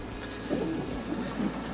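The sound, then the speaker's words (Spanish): Windshield wipers of a car being driven in the rain: a steady low rumble and hiss with two swishing swells about a second apart, moderately loud, with no voices. “Pero antes, antes de ponernos a contar años, voy a, pediros disculpas porque ahora mismo está lloviendo, tengo, como sabéis, pollo en el coche y tengo los mm, limpiaparabrisas activados.”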